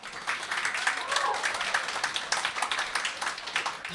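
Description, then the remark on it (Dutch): A live audience at the Nacht van de Poëzie poetry event claps steadily for poet Simona Atangana Bekono for the whole stretch, a dense, even patter of many hands at moderate volume, with a faint cheer or voice rising briefly in the middle. “Mag ik dan van jullie een heel hartelijk applaus voor Simona Atangana Bekono.”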